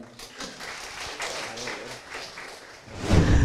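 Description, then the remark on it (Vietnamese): An audience applauds to welcome a real estate investment expert as a guest of the program, with dense, steady clapping that holds for a few seconds, then swells louder at the end with a burst of low thumping. “Xin mọi người một tràng vỗ tay.”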